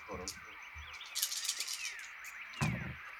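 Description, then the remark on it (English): Dice, including an added stress die, are rolled in a game, clattering and rattling in several quick bursts, a cluster of small clicks in the middle and a sharper clack near the end, fairly quiet over a faint steady background tone. “But uh, I add a uh, uh, stress dice as well. Yes. Ah, five successes then. okay, five successes. I shall roll.”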